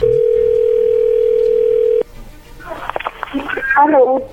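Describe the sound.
A steady telephone tone hums loudly through the line for about two seconds, then cuts off abruptly, followed by faint line noise and a voice speaking over the phone.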